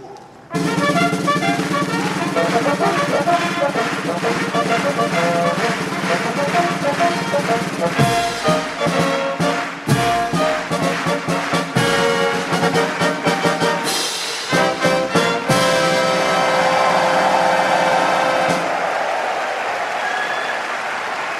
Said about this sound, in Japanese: ポッカレモン消防音楽隊によるファンファーレの生演奏その演奏が雨雲に吸い込まれ